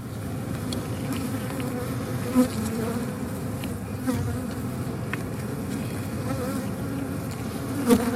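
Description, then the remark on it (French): Steady, dense buzzing of wild bees in the PACA region of France, a European wild bee biodiversity hotspot, a low droning hum with several insects overlapping, occasional brief louder passes as individual bees fly by. No voices. “ici en région PACA dans le hotspot euh, européen de biodiversité des abeilles sauvages”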